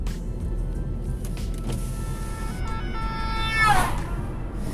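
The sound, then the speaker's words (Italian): An ambulance siren passes over a steady rumble of street traffic, its wailing tone swelling louder and then bending downward as it goes by. “Aspetta che passa l'ambulanza.”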